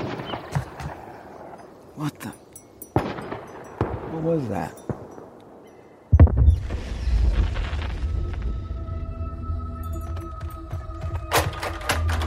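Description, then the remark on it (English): Distant hunting gunshots crack out several times at irregular intervals from up near a cell phone tower on a hill, sharp and fairly faint, over an outdoor background that turns into a steady low rumble partway through, with brief murmurs of voices. “Gunshots. I, I think up near the cell phone tower, up on the hill.”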